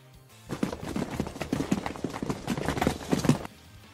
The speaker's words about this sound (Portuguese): Vocês novamente escutam isso aqui. Vocês veem um corredor limpo, mas vocês escutam sons vindo do primeiro andar, como se a turma tivesse descendo as escadas vindo para o térreo.